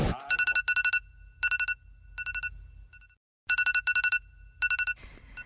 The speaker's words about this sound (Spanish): Ay, qué horror esta alarma de celular, la verdad. Este, todas las mañanas 5.50. Puntual. Es mi, es mi verdugo.